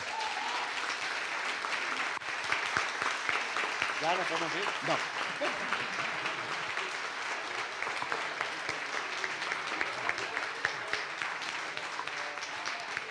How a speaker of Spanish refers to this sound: Así que a todos ellos y a todas ellas, muchas gracias y un aplauso.